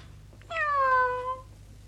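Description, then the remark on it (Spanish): A single clear cat meow with a drawn-out tone that slides downward over about a second, heard alone against a faint low background hum. “Tiempo después encontró un gato.”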